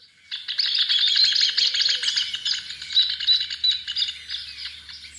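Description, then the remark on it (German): A rufous hornero, down in the mud collecting mud for its nest, calls in a loud, rapid, high-pitched chatter of repeated notes that runs steadily for several seconds, with no voices present. “Oh ja, da ist der Töpfervogel.”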